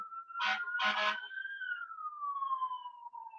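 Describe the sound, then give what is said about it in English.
A fire truck siren in New York City wails in one long tone that slowly falls in pitch, punctuated early by two short, loud horn blasts, with no talking. “Up, oh, New York City sirens.”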